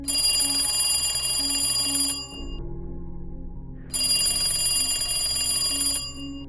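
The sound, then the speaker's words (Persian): An old telephone rings loudly inside a house, two long bright metallic bell trills separated by a short pause, with no voices. “صدای اون تلفن قدیمی بود”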